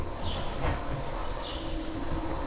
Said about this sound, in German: Es ist einfach schön, dazu zu hören. Ja, ne, wie die Vögel zwitschern. Ich finde das schön.